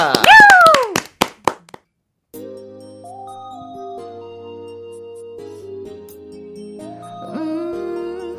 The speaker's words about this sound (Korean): 박수와 함께 청해 볼게요.